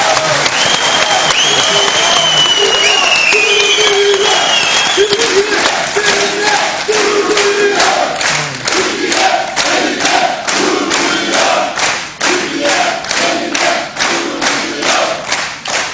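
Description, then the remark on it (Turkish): A large, enthusiastic audience applauds loudly and steadily for the full stretch as guest İstanbul Bar Association President Ümit Kocasakal is introduced, with cheers and shouts rising over the clapping early on and then settling into a rhythmic, unified clap. “Çok coşkulu bir seyircimiz var.”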